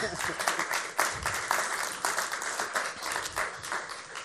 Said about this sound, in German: Geben wir ihm Applaus.